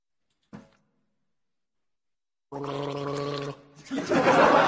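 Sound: person drinking water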